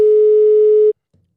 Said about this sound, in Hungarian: Telefonhang.